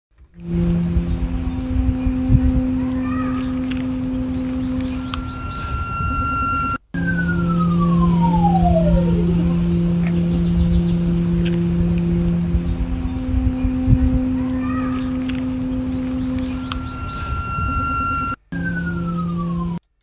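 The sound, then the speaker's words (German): Electronic sound made from the signals of a lime (basswood) tree attached to electronic devices, recorded raw in the garden at the Schlossplatz: layered droning tones and shimmering high pitches, with occasional falling glides like a siren, sustained and fairly loud, broken by two abrupt cuts. “So there you have it, some sounds that were produced by trees being attached to these electronic devices.”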